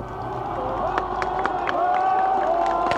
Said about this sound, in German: Nun geht die rote Fahne runter. Die Demonstranten klatschen, sie schwenken ihre Hüte. Sie rufen, wir grüßen das freie Berlin.